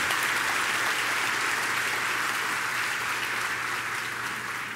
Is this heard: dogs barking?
no